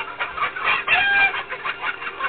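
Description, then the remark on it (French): Several chickens on a poultry farm cluck in a busy, overlapping chorus, with short bursts and a brief squawk rising above the steady clucking, continuous throughout. “C'est pour ça que nos poulets sont meilleurs.”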